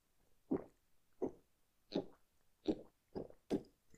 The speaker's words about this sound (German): Jetzt hört er, dass ich wie eine Kuh trinke.